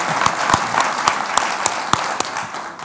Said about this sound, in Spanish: Bueno, yo quiero hoy que recibamos con un aplauso a Gonzalo Suárez. Bueno, un aplauso. Un aplauso recíproco